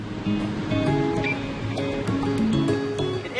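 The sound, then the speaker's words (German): Steady roar of the incoming tide washing over rocks on the rocky coast at the southern tip of Africa at first light in summer, a continuous rushing hiss with no clear pause between waves, accompanied by a faint tonal hum in the background. “Die Flut kommt zurück. In ein paar Minuten wird das Wasser die Felsen wieder vollständig unter sich bedeckt haben.”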